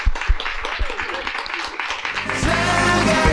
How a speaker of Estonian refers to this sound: teeme panelistidele aplausi, aitäh, et kuulasite.